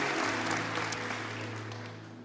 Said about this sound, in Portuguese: Quem já aqui é salvo por Jesus, dê uma salva de palmas bem forte. Aleluia! Salvos por Jesus.